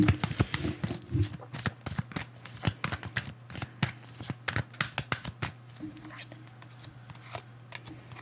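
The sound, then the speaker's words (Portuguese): A deck of cards is shuffled, with quick, crisp papery flicks and riffles running throughout, spaced irregularly, over a steady low background hum, two cards jumping out of the deck. “Nossa, essas duas cartas já tava pulando antes.”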